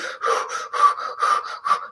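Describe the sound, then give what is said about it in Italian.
Forceful heavy breathing performed as a demonstration, a rapid series of loud, rasping breaths in and out in a steady rhythm, with no talking. “È come quando respiri forte”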